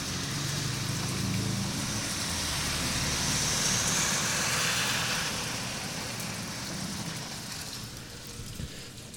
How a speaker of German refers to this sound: vielleicht bleibe ich einfach den Rest des Tages an meinem Bürofenster stehen und höre, wie der Regen die Regenrinne runterläuft. Das ist irgendwie schön und beruhigend.